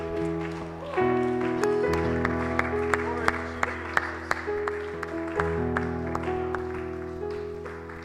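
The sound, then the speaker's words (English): An audience claps hands in praise of the Lord over sustained organ or keyboard chords, the applause steady and fairly loud with sharper individual claps punctuating it throughout. “Let's just give the Lord a hand clap of praise right now.”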